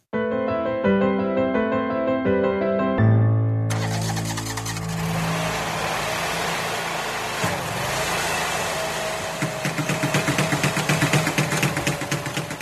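A large digging machine, used by two workers to dig up the sand on a playground, starts up after a few seconds of tonal notes, then rumbles and revs steadily and loudly, with rhythmic clattering toward the end. No one speaks.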